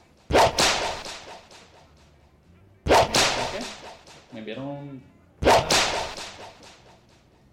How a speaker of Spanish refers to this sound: ¿Pero va a seguir dándole latigazo a todo el mundo o qué? Es que hay que darle a esa gente latigazo para que respete.